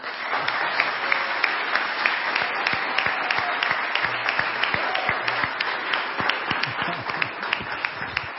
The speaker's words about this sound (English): So if you give a round of applause for.